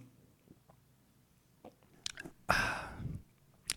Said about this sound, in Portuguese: Então, peraí, deixa eu dar um gole de água aqui para recuperar as energias, para aquele velho papo, né, de tomar uma água bem devagarzinho para ver se, para ver se dá uma acalmada.